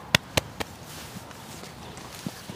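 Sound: horses walking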